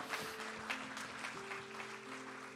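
An audience breaks into sustained applause, a dense wash of clapping with a few louder bursts, while steady sustained organ or keyboard tones hum underneath.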